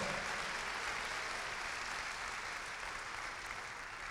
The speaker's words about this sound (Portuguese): Aplauda o Senhor.